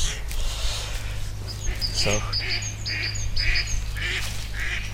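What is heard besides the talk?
birds calling nearby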